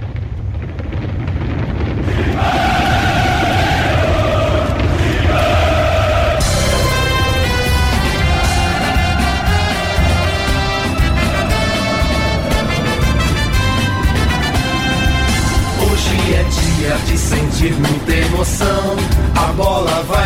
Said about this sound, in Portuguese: O Corinthians completa 112 anos e como fizemos outro dia com o Palmeiras, temos também uma musiquinha especial para homenagear o Corinthians e os corintianos.